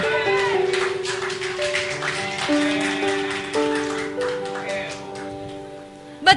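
A crowd claps steadily for several seconds, a dense patter of many hands, while a keyboard holds sustained chords underneath that shift a few times.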